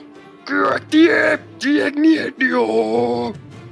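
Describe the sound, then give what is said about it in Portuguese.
A human voice imitates a giant creature's scream: several loud, drawn-out groaning wails in quick bursts, the last one longest, with no other talking. “E a criatura gigantesca que tá ali caída com o escudo na frente do corpo, como se pudesse se defender, tentando se defender, vocês ouvem um grito.”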